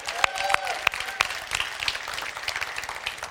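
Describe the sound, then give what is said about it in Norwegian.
An audience breaks into applause, a dense patter of many hands clapping at moderate volume, with a few sharp louder claps standing out near the start and faint whoops or calls mixed in. “Altså, Gi mannen en applaus for meg en gang jeg mener det.”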